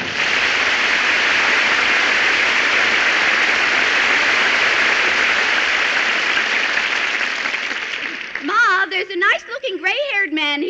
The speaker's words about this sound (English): here who keeps waving at the audience and they applaud.